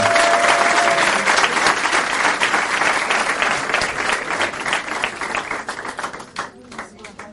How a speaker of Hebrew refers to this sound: בעזרת השם, מחר מתחתן, מגיע לו מחיאות כפיים לצדיק שלנו.